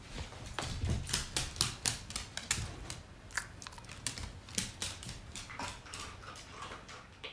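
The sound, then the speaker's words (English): A light brown, roughly 40-pound female dog makes a quick, rhythmic tapping, a steady run of sharp clicks like nails or a tail striking a hard surface, in an apartment with wooden floors, with no talking over it. “In case you couldn't tell, that rhythmic sound was actually coming from my dog.”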